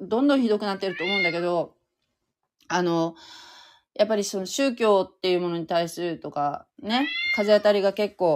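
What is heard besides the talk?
cat meowing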